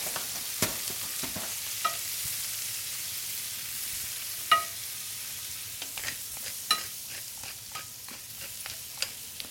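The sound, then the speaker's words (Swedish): Chanterelle mushrooms frying in a pan in Västerbotten, being salted and peppered, a steady hiss of sizzling broken by scattered sharp pops and clicks, with occasional scrapes as the pan is stirred. “står jag och steker kantarellerna.”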